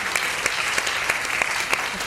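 A crowd applauds the program at Mercedes steadily for about two seconds, a dense patter of many hands clapping at even loudness with a few sharper claps standing out, and no voices.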